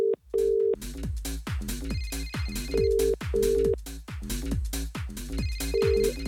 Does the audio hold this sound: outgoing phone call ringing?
yes